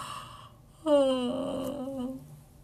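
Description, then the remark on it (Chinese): A single drawn-out yawn from a live streamer, made on a viewer's paid Super Chat request for a sleepy, just-woke-up yawn: a voiced vocal sound that starts abruptly and slides downward in pitch over about a second and a half before trailing off. No words are spoken. “我也是迫于钱的淫威之下，出于对观众的尊重啊，我也不想打哈欠的，对吧？”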